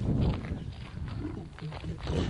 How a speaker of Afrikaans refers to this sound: Ek bedoel hierdie leeu weeg wat 140 kg al.